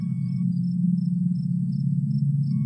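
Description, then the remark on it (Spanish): A steady nighttime forest ambience: a continuous low hum underlies evenly spaced, high-pitched cricket chirps pulsing in a regular rhythm, with no voices. “Es de noche y estás en un bosque.”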